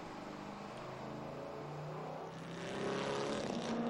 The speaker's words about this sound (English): Seven liter V8. Not a lot of sounds like that, is there?